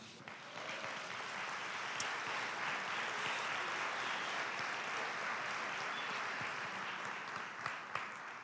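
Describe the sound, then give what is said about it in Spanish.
Sustained applause from a church crowd for the Lord during a sermon: a dense steady clatter of many hands clapping at an even loudness for several seconds, with no one speaking over it. “un aplauso al Señor.”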